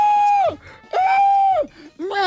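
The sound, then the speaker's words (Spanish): A voice imitates a woman screaming: three loud, high, sustained shrieks, each holding pitch before sliding downward, with brief gaps between them. “Y la señora gritando.”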